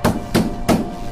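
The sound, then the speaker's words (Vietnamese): A man strikes three heavy, booming thuds on his son's bedroom door, locked from the inside, in quick, even succession, loud, each impact ringing briefly before the next blow lands. “Đáp lại tiếng đập cửa rầm rầm đó”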